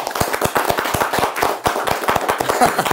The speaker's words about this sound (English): It gotta clap it up for that.